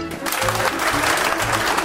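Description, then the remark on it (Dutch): A live audience of up to 30 people at the expo Heren vertrekt in the Sint-Pietersabdij in Ghent applauds during a Radio 1 broadcast, a dense, steady patter of clapping hands that stays loud and even throughout, with no voices standing out. “U hoort nu een live publiek.”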